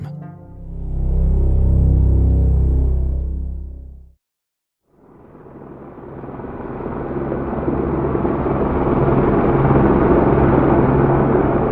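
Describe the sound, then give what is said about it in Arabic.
A helicopter drones with a deep, throbbing hum as it comes in to land, cuts out briefly, then returns as a loud, broad roar that swells and holds steady, with no voices. “سمعت هدير مروحة الطائرة فخرجت الى الفناء الخلفي”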